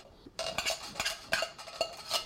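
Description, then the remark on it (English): Repeated metallic scraping of a utensil against the inside of a can of great northern beans, scraping out the beans stuck to the bottom into a colander, several quick rasping strokes in an irregular rhythm, fairly clear with no talking. “Scrape out the ones that always stick to the bottom.”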